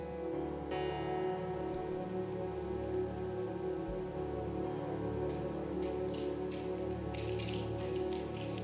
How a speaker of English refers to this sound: The crackling sound you hear is the sound of the plastic cups being broken.